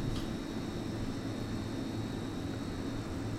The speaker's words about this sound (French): Alors ça c'est plutôt le bruit des frigidaires, mais en fait pour moi les, bruits sont liés à, l'objet